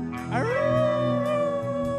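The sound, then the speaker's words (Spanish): A person imitates a long, wavering howl, the voice sliding upward and then holding a sustained, mournful tone for about two seconds, loud. “Solo se oía un aullido que así decía.”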